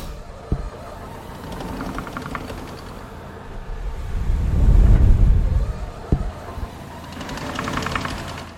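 A blast furnace air blower compresses air in barrels, pushed down by leather belts, feeding pipes under the floor to a blast furnace and two cupola furnaces. It runs with a steady mechanical chugging and whir, swelling into a deeper, louder rumble midway before easing back, with two sharp knocks and no voices.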